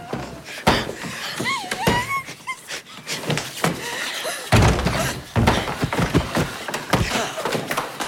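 A scuffling struggle: heavy thuds and bangs of a body shoved against a door as one person pushes another to force them aside, a brief strained whine, then a loud heavy thump as the pushed person ends up on the floor, followed by more shuffling knocks.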